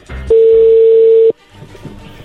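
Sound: telephone number being dialed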